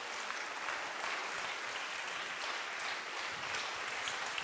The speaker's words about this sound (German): Steh doch schnell auf und dann geben wir uns gegenseitig einen fetten Applaus. Wenn du in irgendeiner Form in der Vignette Bern mithilfst.